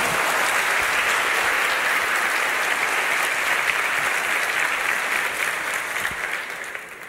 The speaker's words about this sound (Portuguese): Vamos aplaudir os dois.